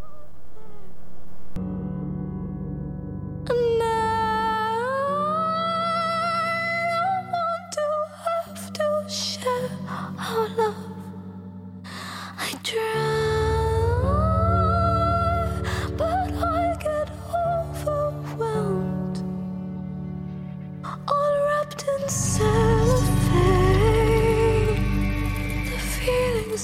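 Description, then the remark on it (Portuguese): A slow, melancholy pop song: long sustained low notes under a high, sliding sung vocal line, building to a fuller, louder passage near the end. “Então é uma música para dançar triste.”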